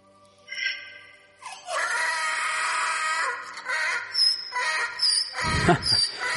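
animal, donkey braying

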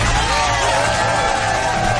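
crowd, applause and cheering

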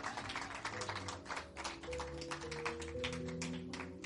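crowd, audience applauding

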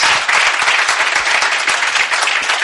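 crowd, audience applause

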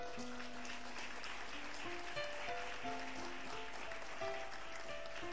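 crowd, audience applauding loudly

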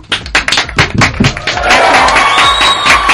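crowd, applause and cheering

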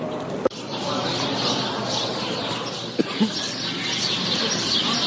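bird, birds chirping in trees

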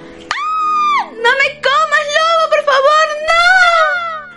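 human body sound, screaming

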